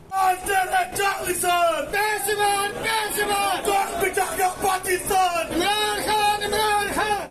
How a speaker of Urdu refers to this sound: supreme court کے فیصلے کے بعد تحریک انصاف کے کارکنان سپریم کورٹ کے باہر جمع ہو گئے پی ٹی آئی کارکنان نے حکومت کے خلاف اور عمران خان کے حق میں نعرے بازی کی